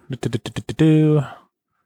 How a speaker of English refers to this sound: I'm just clicking the button a bunch of times.